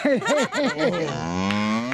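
A cow moos loudly: a quick run of short, wavering lowing calls, then one long, drawn-out moo that holds steady before fading. No voices.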